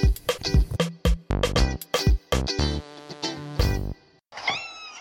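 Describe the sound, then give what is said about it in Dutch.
A voice imitates the cat Spinner Spinner purring loudly as the kitten Pipi snuggles against him, a string of buzzy, rolling 'brr' sounds in short bursts of changing pitch, prominent, with a brief pause before a final trill. “Spinner Spinner begint hard te spinnen. Brr, brr.”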